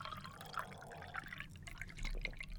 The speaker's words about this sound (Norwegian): Da må jeg ha litt vann. Ja, ta litt vann. Høres ut som du tisser i en liten skål.